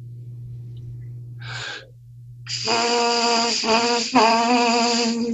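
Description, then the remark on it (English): A quick intake of breath, then a person lets air pass across their lips so they vibrate in a steady buzz held for a few seconds, fairly loud, with a couple of slight wobbles in pitch. “I'm just letting the air pass across my lips and allowing them to vibrate.”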